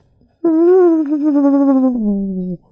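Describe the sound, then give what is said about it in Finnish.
A voice imitates the legally required warning whine of an electric car: a single sustained, steady hum-like tone lasting about two seconds, slightly falling in pitch at the end, loud. “pakollinen pieni semmoinen ujelusääni on vähintään oltava, jotta se on laillinen, mutta, mutta tota, ei sekään nyt mitään tilannetta pelasta.”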